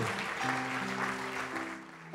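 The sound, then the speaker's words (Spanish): A crowd claps steadily and densely throughout in sustained applause for the Lord during a religious sermon, while a held keyboard chord hums underneath. “Fuerte, fuerte el aplauso al Señor.”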